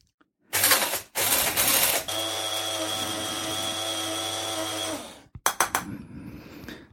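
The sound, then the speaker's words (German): An electric spice grinder grinds garam masala, whirring loudly in short bursts, then settling into a steady high-pitched motor whine for about three seconds, ending with a few quick pulses. No one speaks. “So, jetzt wird hier gemahlen.”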